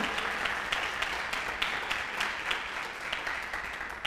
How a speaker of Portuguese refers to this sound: Dá um aplauso para o Senhor Jesus aí.